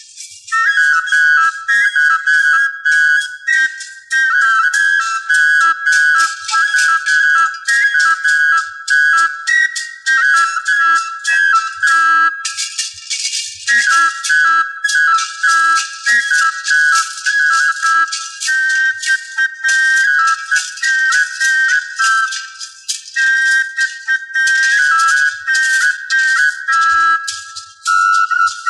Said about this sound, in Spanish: Esto fue sonido de flauta doble arcaica de la costa occidental.